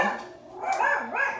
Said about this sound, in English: excuse my dogs, they're, they're barking.